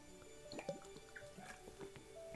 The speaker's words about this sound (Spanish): Perdón por ese ruido, pero es que cuando hablas mucho pues tienes que tomar agua.